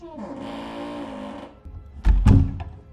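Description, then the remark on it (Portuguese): A drawn-out shout to the speaker's brother, who is playing video games, gives way to a pair of loud slapping thuds about a quarter second apart, heavy and booming, with a short rustle afterward. “Eu ouvir um tapão.”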